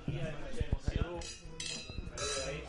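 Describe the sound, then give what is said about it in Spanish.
Several quick, bright clinks of glasses tapping together in a toast, mixed with cheerful voices and the clatter of a busy table. “Salud, vamos a brindar, vamos a brindar, ¿qué brindar?”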